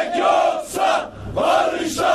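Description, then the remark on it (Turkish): About 500 protesting workers chant slogans in unison while blocking traffic on the Milas–Yatağan highway in Turkey, loud rhythmic shouted phrases rising and falling in bursts with a brief dip between them, voices blending into a roaring chorus. “Yaklaşık 500 işçi slogan atarak Milas Yatağan Karayolu'nu trafiğe kapattı.”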